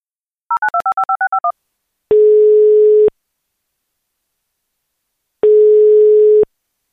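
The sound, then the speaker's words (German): A quick run of touch-tone dialing beeps, then the ringback of an outgoing call placed to a man for a conversation about infrasound: two long, steady single-pitch tones separated by a silent pause, clear, with no one speaking. “Und deswegen glaube ich, wir rufen ihn einfach mal an.”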